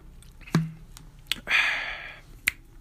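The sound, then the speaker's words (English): A freshly opened drink being sipped: a few sharp wet clicks and lip smacks around a brief, hissing slurp lasting under a second, with no talking. “And I just opened a drink, so excuse that sound. But one second as I take a sip.”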